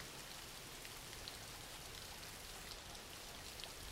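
Steady rain falls continuously, a dense even hiss with scattered faint drop ticks, heard on its own at a fairly quiet level without any voices.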